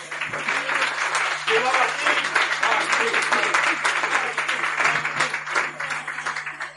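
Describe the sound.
Sustained audience applause fills the whole stretch, a dense, steady wash of many hands clapping at even loudness, with murmuring voices blended underneath.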